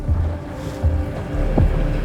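A tiny inflatable boat carrying three people motors at high speed through rough, choppy sea, its engine droning steadily while hull thumps and wind-buffeted splashes rise and fall in a few heavy surges, loud.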